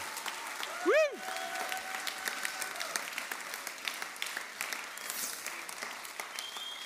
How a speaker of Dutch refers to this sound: Laten we juichen voor hem.